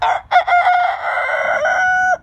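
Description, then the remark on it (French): A human voice imitates a rooster's crow: a couple of short clipped notes, then one long, loud, sustained cock-a-doodle-doo, with no other talk. “Je peux faire le coq.”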